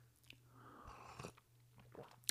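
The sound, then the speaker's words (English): A quiet sip of coffee: a soft airy slurp, a short second draw, then a small click, all over a low steady hum with no one talking. “Sip of coffee on that one.”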